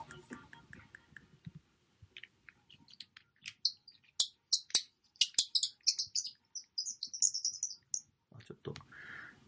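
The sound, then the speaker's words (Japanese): A repainted wooden bird call, a metal piece stuck in the wood being twisted round, squeaks out a run of sharp, high chirps and twittering trills, fairly loud, mimicking birdsong in quick irregular bursts, with faint clicks and handling noise around it. “で、その後に作ったのが、リペイントバードコールって言って、このバードコールって言って、こう、木の木にですね、金属が刺さっていて、その刺さった金属をくるくる回すと、こう鳥の音が、鳥の鳴き声みたいのが、えー、再現できる。”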